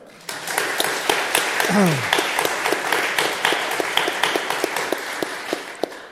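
An audience breaks into applause, many hands clapping in a dense, sustained patter that starts abruptly and continues steadily, with a brief murmur of a voice early on.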